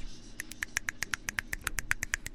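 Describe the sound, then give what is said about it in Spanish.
Radio applause made of finger snaps, used so as not to saturate listeners' ears: a quick, uneven flurry, maybe twenty crisp clicks in a couple of seconds, overlapping like several people snapping at once in place of applause, over a low steady hum. “Aplausos radiofónicos con chasquidos para, para no saturar sus oídos”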